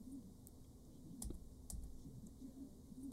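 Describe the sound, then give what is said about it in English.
Keys clack irregularly on a laptop keyboard damaged by spilled coffee, a few sharper, louder strikes standing out among softer taps over a low steady hum, fairly quiet, with no one talking. “I told you I spilled coffee on the laptop. Some of these things sound weird.”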